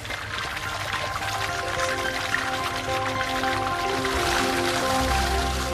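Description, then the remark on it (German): Excess water pours and drains steadily from soaked, softened soybeans in a factory, a continuous splashing rush with a faint low hum underneath, no voices. “Das überschüssige Wasser wird wieder abgelassen.”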